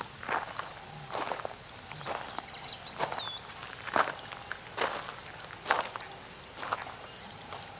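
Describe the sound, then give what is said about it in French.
Footsteps on stony ground by a marsh, a steady walking pace of about a dozen crunchy, scraping steps, with faint high cricket chirps repeating in the background. No one speaks. “Le sol caillouteux provoquait des bruits sourds à chaque fois qu'un pied s'y posait.”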